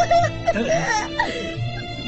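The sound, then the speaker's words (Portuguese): A boy crying and sobbing, his voice wavering and breaking in uneven pitch glides with short catches of breath over about two seconds. “Tadinho, o Goku está chorando”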